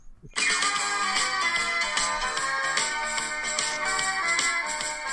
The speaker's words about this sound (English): Just, let me just let me just change my ringtone one one last time. One last time. You're I'm going to change my ringtone.